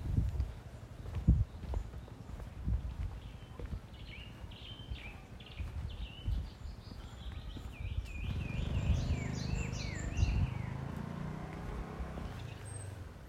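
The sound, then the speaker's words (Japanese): Many birds chirp and warble in repeated bright phrases outdoors in fine weather, moderately loud, recorded during a walk, over steady footsteps and a low rumble of movement. “今日は天気がいいので鳥がいっぱい鳴いてます鳥のさえずり録音です”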